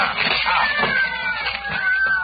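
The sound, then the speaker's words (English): About half a dozen cats locked inside a dressing room yowl and meow at once in a loud, continuous chorus of overlapping wails, with long rising and falling cries and no pauses. “There are cats inside our dressing room.”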